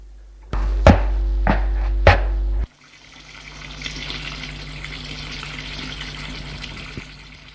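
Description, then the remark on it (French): A few sharp knocks over a low humming drone, then a kitchen tap is opened at the sink and water runs steadily into it, an even hiss that continues to the end, as a woman gets ready to wash the dishes. “Elle va à l'évier ouvrir le robinet.”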